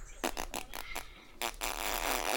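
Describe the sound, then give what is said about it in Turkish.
A voice imitates a fart: several quick sputtering bursts, then a long, raspy, drawn-out blowing noise that trails on to the end. “mesela osuracağım diyor. Osu, hani ve böyle ilk başta pırt yapıyor sonra”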